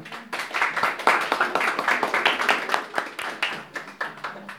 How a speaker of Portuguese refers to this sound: Amém. Amém. Vamos aplaudir, Senhor.